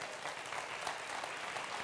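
A crowd claps together in steady, dense applause for the Lord after a preacher's words, filling the space evenly, many hands sounding at once without any voices standing out.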